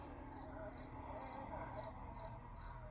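Steady cricket chirping, six short high-pitched trills pulsing at an even rhythm over a low, constant background hum, fairly faint and with no one speaking.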